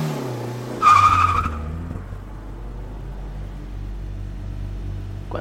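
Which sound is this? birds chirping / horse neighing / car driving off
car driving off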